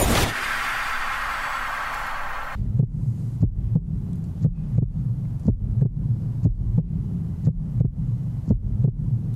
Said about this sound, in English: just let this music go for about a minute or so where people who are listening to the radio by themselves start getting a little nervous, looking around.